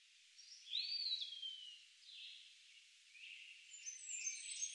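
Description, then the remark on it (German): Faint, high-pitched bird chirps and short whistling sweeps come and go over a few seconds, thin, with no voices present. “Die Vögel zwitscherten fröhliche Melodien.”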